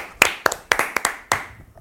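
Hand clapping, about six or seven sharp claps in a loose, slightly uneven rhythm, with a short pause before the last one; no voices.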